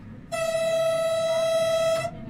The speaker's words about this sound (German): Im Moment pfeift die Biberbahn vor den Übergängen zur Warnung. Das ist bei modernen Signalanlagen nicht mehr so.